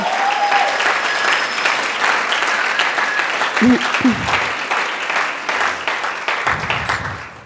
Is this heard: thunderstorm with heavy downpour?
no